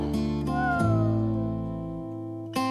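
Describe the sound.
A voice imitates a Jack Russell dog's whine: one loud, drawn-out, nasal wail that slides gradually downward in pitch for a couple of seconds.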